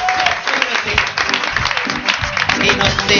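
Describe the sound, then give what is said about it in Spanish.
Loud, dense farewell applause for a guest from many hands, sustained for about three seconds with a steady crackling texture, with a few voices or cheers mixed faintly into the clapping. “Y mientras cargan los vídeos, aprovechamos para despedirte con este fortísimo aplauso.”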